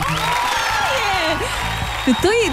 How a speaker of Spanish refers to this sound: Mira, y el otro aplaude